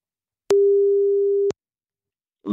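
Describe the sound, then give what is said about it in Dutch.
A single steady telephone ringback tone as a BNR Nieuwsradio presenter places a call, a clean mid-pitched electronic beep for about a second that cuts off abruptly, followed by a moment of silence before a voice begins. “Goed, nou we gaan hem eens even bellen.”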